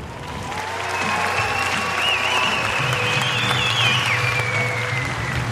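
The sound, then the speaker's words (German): Steady audience applause from a sizable crowd after a film screening, a dense, continuous patter of clapping that holds at a fairly even level throughout, with a thin whistle-like tone rising faintly above it. “Und habe ohne Scheiß nichts aufgenommen. Bis auf den Applaus, glaube ich, nach dem Film.”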